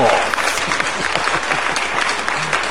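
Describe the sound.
Steady, dense applause from a crowd, loud, with many overlapping claps sustained throughout and a faint voice briefly audible underneath.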